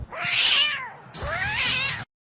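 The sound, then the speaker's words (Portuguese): Two drawn-out cat meows in quick succession, each rising then falling in pitch, loud with no talking around them. “Como um gato!”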